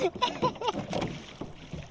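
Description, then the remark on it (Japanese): Moderately loud oar strokes and water sloshing as a small rowboat is rowed across calm water on Shinobazu Pond in Ueno, Tokyo, in the western afternoon sun, with people talking and some wind rumble on the microphone. “西日差す忍ばずの池をね、僕らこうやってボートこいでるから。”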